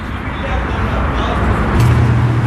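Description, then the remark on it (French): A steady, loud roar of expressway traffic rushes past below, beneath a monument, a continuous wash of engine and tire noise with a deep rumble that swells slightly toward the end. “donc il y a une route qui passe sous le monument final, la dernière étape si on peut dire, une voie rapide qui passe dessous.”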